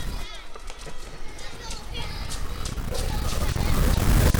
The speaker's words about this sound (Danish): Man kan høre børnene. Det forstyrrer mig. Det er for mange indtryk. Jeg har lige lukket mine øjne. Og så åbner jeg ørerne, og så kan jeg høre børn lege.